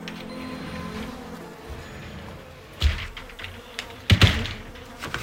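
Flies buzz in a low, wavering drone that hums steadily at first, then a few sharp knocks and rustling bursts break in. No one speaks.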